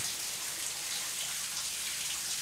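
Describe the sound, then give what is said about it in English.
A steady, hissing rush of shower water sprays continuously as a woman scrubs down in the shower in a film scene, a dense patter with no pauses or voices, even in level throughout. “So right now, the Norma is, or I forget what her name is, but the mother is in the shower, scrubbing down.”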